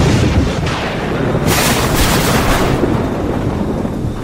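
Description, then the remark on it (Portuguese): A loud crack of thunder from a lightning strike, a sharp burst followed by a long heavy rumble that fills the whole clip without fading away. “Assim que todos correm de encontro um ao outro, uma tampa de aço puro é lançada ao alto quando um relâmpago cai diante da ciranda de heróis, jogando todos para trás.”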